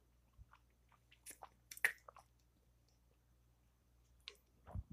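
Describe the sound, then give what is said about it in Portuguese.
Someone drinks warm water, with a few soft gulps and wet mouth clicks and smacks scattered over a quiet background hum. No one speaks. “Deixa eu tomar água aqui.”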